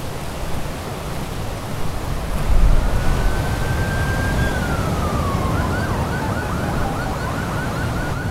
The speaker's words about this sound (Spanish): Se escuchan, allá a lo lejos, las sirenas de un auto de la policía quizá es otra vez la muerte absurda.